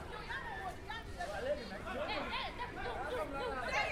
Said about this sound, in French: Le garçon en blouson noir qui était tout seul et en train de parler avec une jeune fille qui est en vêtements de basket violet. J'ai l'impression qu'ils sont pas d'accord sur quelque chose et ça discute assez fort.